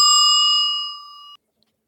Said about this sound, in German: Der Timer. Das war der Timer.